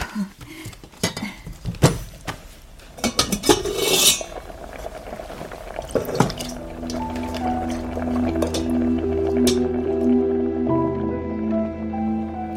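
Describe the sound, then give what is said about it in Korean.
Dozens of rice dumplings (ongsimi) drop into red bean porridge with soft wet plops amid scattered clinks of utensil against pot, then a steady low hum carries on underneath. No one speaks. “이제 팥죽 속에 옹심이 넣을게요.”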